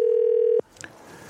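A loud, steady telephone tone holds one mid pitch for just over half a second as a phone call is placed, then cuts off abruptly, leaving faint line noise and a couple of soft clicks. No one speaks.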